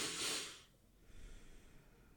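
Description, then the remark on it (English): A deep, airy breath rushes out at the start, followed by a softer, quieter breath drawn in, taken to reset breathing and relax, with no talking. “Take a couple breaths in and just relax.”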